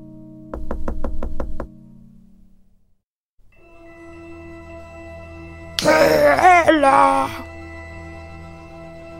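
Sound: knocking on a door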